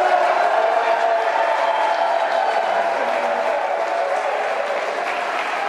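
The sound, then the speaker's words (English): A rally crowd of over 200 advocates cheers and applauds steadily as a woman walks in, a dense roar of clapping and voices that stays loud throughout, easing only slightly toward the end. “they were rowdy when she walked in, too. they were excited.”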